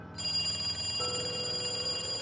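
telephone ringing

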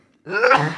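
sneeze

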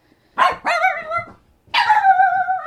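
dog barking

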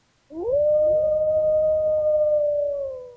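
wolf howling

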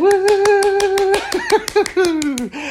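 one person clapping hands

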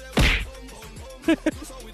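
slap sound effect

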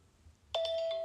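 mobile phone ringing

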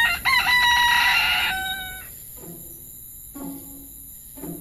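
rooster crowing

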